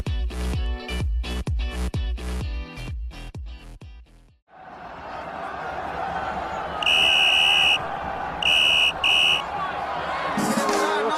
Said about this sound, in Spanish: Suena el pitido del árbitro y el encuentro finaliza.